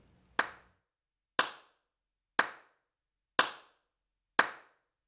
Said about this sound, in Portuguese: Para o ritmo acontecer, nós precisamos escolher uma pulsação, que é uma batida regular, como se fosse o coração do ritmo. Sabe quando você começa a bater o pé ou a mão na coxa de forma regular, constante, enquanto ouve uma música? Essa é a pulsação.